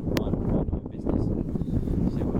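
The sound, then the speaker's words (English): Steady low rumbling buffeting of wind hitting a microphone outdoors, loud and continuous throughout, with a brief sharp click near the start and faint voices mixed underneath. “Hopefully, it doesn't stay quite as windy as this.”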